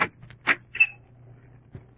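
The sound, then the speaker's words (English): A door opens as someone enters: a couple of sharp wooden clunks from the latch and handle, then a brief high squeak of the hinge, with a low steady hum underneath. “Come in.”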